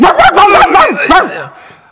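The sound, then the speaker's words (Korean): A person imitates a dog barking, giving a quick run of sharp vocal barks and yips, with the sound trailing off at the end. “아, 나 이거 몇번 짖어야 되는”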